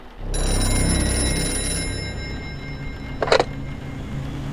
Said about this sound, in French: Le téléphone sonne.